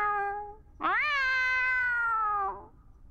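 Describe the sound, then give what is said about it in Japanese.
A black cat gives two meows: a short, softer mew, then after a brief pause a longer, loud, drawn-out meow that rises sharply and trails off. No one speaks. “黒猫は幸せの前触れだ”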